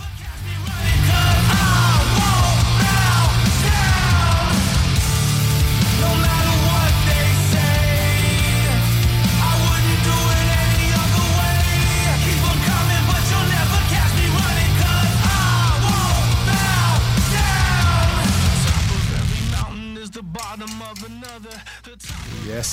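A loud, dense heavy metal track with distorted guitars, pounding low end and shouted vocals runs continuously, then drops to a sparser, quieter passage near the end.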